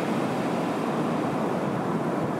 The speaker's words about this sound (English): Is that comforting? to you, the expanse of the sea rising and falling, ebbing and flowing, coming and going.